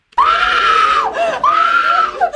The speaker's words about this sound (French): Là, elle hurle. C'est enfin le cri de la vie, le cri de son humanité.